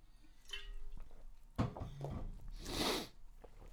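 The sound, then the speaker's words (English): A sip of water: a soft clunk of a cup being handled, then wet slurping and swallowing sounds, followed by a breathy exhale. No talking. “Because otherwise, let me have a quick drink of water.”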